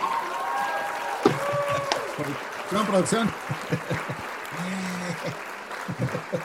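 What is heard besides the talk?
applause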